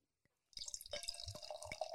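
After a brief quiet moment and a soft tap, a strongly fizzing drink is poured into a glass: a steady bubbling hiss with splashy gurgles and a faint tone that rises as the glass fills.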